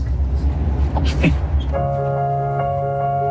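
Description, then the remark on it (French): An old, worn car's engine rumbles low, then abruptly cuts out as it breaks down, leaving a steady ringing warning tone sounding alone for the remaining moments. “Ta voiture est tombée en panne Ouais vieille voiture est tombée en panne parce qu'elle était vieille et usée.”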